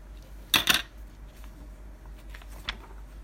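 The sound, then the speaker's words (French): A copy of the Ramban is opened with a short, crisp burst of papery rustling, followed by quiet handling and one faint page flick a moment later. No one speaks. “Je, un instant, j'ouvre le Ramban.”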